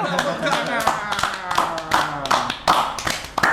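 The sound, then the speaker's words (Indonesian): Hand clapping from a small group, a quick irregular patter of sharp claps running steadily throughout, with voices murmuring underneath. “tepuk tangan”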